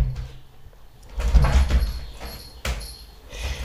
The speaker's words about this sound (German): Mein Kater kratzt hier rum.